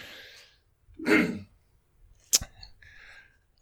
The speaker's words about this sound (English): Um, so, one second, I'm going to clear my throat real quick.